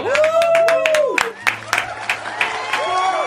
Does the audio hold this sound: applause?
yes